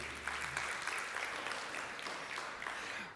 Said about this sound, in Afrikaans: Dankie orkes. Ag gee vir hulle lekker hande klap toe.